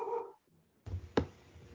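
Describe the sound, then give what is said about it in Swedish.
A dog gives a single short, sharp bark against a low background rumble, just after a brief whiny, tonal vocal sound at the start. “Ja, min hund sa jag också.”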